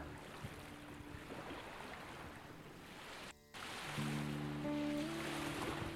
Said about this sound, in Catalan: Només has de deixar-te portar, sentir el mar